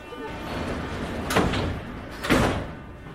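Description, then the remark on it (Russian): Metro train sliding doors close with two loud, sharp thuds about a second apart, set against a steady rumbling background of the carriage. “Осторожно, двери закрываются.”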